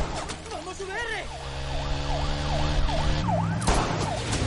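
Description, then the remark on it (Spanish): A police siren wails in rapid repeated swoops over loud engine and road noise as a police car chases a vehicle through a favela. “El coche de la policía le sigue.”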